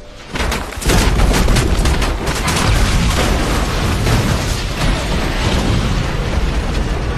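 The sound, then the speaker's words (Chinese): A jet engine of Captain Sully's plane damaged by a flock of very large birds over the Hudson River: a sudden loud onset of rapid banging bursts from internal structural damage that gives way to a harsh, sustained rumbling roar, with no voices. “萨利机长突然就听到了一阵非常可怕的噪音，那是发动机内部结构损坏的声音。”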